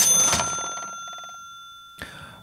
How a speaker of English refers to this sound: Okay, so I'm getting really tired about talking about money all the time and hearing this stupid cha-ching sound every time I say dollars. Okay, I get it.